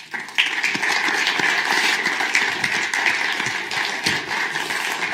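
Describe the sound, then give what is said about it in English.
An audience at a talk on compositional creativity applauds to welcome composer Rolf Hind, dense overlapping claps forming a continuous bright wash of sound that holds at an even, fairly loud level throughout, with no voices. “But to find out more about where this goes next in compositional creativity, I'd like you to uh, applaud Rolf Hind, who's going to come and uh, talk to us for the remainder of today's talk.”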